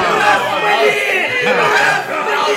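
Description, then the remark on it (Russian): A loud, dense crowd of many voices clamors together, overlapping shouts and chatter merging into a continuous roar that stays at full volume throughout, the crowd shouting ever louder to demand a crucifixion. “Но иудеи стали кричать еще громче.”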